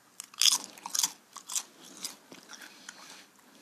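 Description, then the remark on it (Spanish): Close, crisp crunching as someone bites into potato chips, with several sharp bursts in the first two seconds followed by softer chewing. No talking. “Y el sonido ahí, ...HMR de papa frita.”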